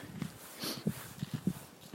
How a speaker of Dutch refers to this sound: Een podcast opnemen tijdens mijn wandeling in het eh, bos. Want ja, waarom zou ik door het dorp gaan lopen terwijl ik ook een mooi bos eh, bijna in de achtertuin heb?